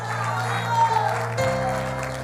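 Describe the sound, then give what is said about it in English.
An audience claps along in a steady wash of applause over sustained organ or keyboard chords, with voices mixed faintly into the sound, clapping to thank the Lord in Jesus' name. “Let's clap our hands and thank thank the Lord right now in Jesus' name.”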